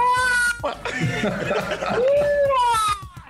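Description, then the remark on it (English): A man's voice mimics martial-arts fighting screeches like those Bruce Lee made: a few shrill, wavering, drawn-out yowls, loud, with brief laugh-like bursts in between. “But those are the kind of noises that I made.”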